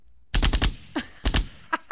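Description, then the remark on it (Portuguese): A rapid burst of automatic gunfire, then scattered single shots and a short double burst, loud, with no talking. “Vai dar tiro. Vai dar. Vai dar tiro.”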